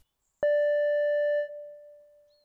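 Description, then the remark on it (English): A single clear electronic chime tone, an audio walking tour's signal to pause the player and walk to the next stop, sounds alone, starting sharply and holding steady for about a second before fading out smoothly; no voices. “that's the signal to pause your player and walk to the next stop.”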